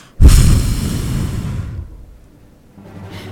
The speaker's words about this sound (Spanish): Yo te iba a mostrar cuál es mi alarma. No, la puta que lo parió. Esta es mi alarma, chicos. Con esto me despierto todos los días.